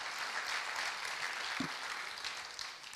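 A church audience applauds for the Lord during a sermon, a dense, steady wash of many hands clapping across the whole stretch, even, with no voices standing out.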